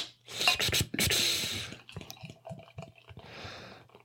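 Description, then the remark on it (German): Jet-black dark beer glugs and splashes into a glass, a fizzy rushing pour with a few gurgling bursts, then a softer foamy hiss as it settles under a browned head of foam. “Lass den schwarzen Stoff doch mal ins Glas tiefschwarz.”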